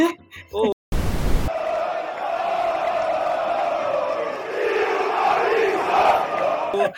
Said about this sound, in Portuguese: Quando ele estava jogando no Cruzeiro, num jogo lá contra pelo, pelo Campeonato Brasileiro, tanto faz, a torcida ficou gritando durante o jogo. Ô, oh, oh, oh, tira o Fabinho.